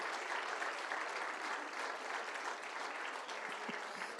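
An audience applauds steadily, a dense wash of many hands clapping at an even, moderate loudness throughout, with no voices standing out.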